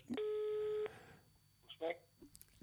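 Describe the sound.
A single steady electronic ringing tone on a phone line, from a surprise phone call to someone on Mallorca, sounds for about a second as a flat harmonic buzz, then cuts off, followed by faint shuffling and a brief murmur of a voice.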